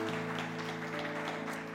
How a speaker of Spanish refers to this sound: Demos otro fuerte aplauso al Rey de Reyes y Señor de Señores.